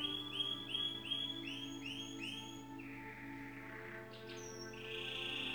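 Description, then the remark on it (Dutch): A pet mouse named Pico squeaks in a quick, regular run of about eight high-pitched chirps, followed by a longer, sliding squeal and a few softer squeaks. No one speaks. “Toen was die muis stil. En nu bij het inspreken van dit bericht op de kaart van de authentieke waarheid. Laat Pico zich horen.”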